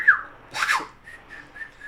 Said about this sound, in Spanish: Yo estoy a silbar de muchas maneras. Tienes que acercarte un chingo, güey, para que escuchen. Ya ven, si sabes silbar.